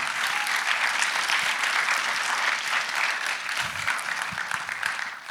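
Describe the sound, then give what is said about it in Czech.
Sustained audience applause at a talk show, a dense, steady wash of many hands clapping at even loudness for about five seconds, with no voices on top. “A jsme za to moc rádi a poprosím, aby jsme ještě jednou zatleskali.”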